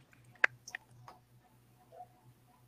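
A few sharp keyboard keystrokes click out irregularly in a quick cluster, then stop, leaving only a faint low hum in the background. No one speaks.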